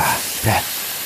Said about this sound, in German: Ich, ich lass schon mal die ah, Luft aus dem Ball.